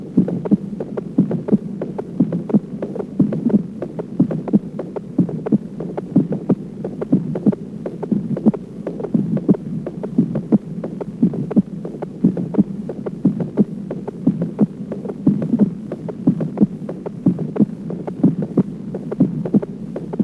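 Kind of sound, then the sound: medical sound, fetal heartbeat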